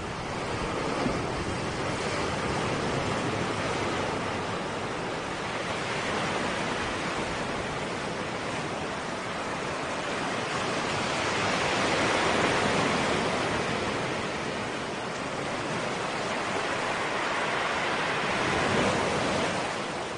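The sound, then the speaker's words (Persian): Steady ocean surf washes onto a beach, a broad rushing roar that swells and recedes in slow waves over twenty seconds, with no voices present. “یکی از قسمت های فعالیت این بود که حسشون از شنیدن صداهای مختلف مثلا توی ساحل بگم”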